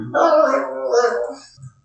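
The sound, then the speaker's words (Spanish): A dog barks in one drawn-out, harmonic yowl lasting just over a second, moderately loud, then trails off into a short faint sound. “ya está ladrando ahí”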